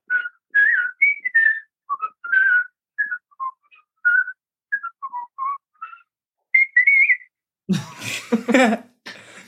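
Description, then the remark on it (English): Someone whistles the University Challenge theme tune, a lively, bouncy string of short melodic phrases with quick pauses, ending in a burst of laughter or a breathy noise. “Is it true you can whistle the University Challenge theme song? I can.”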